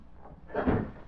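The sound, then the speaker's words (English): The rear door of an office building opens and shuts in one quick, muffled movement, a soft swell of wooden knocking and rustle lasting under half a second, with no voices. “They were in the accounting office of Pop Selden when they heard the rear door that they had used open and close.”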